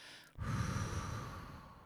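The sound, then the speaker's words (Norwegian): A long, deep exhale blown out steadily through the mouth during a breathing exercise, with a hand placed on the navel, breathing all the way out; fairly loud, lasting over a second after a brief pause, with no talking. “Så vi legger hånden på navlen, og uansett hvor du er nå, så puster vi helt ut sammen.”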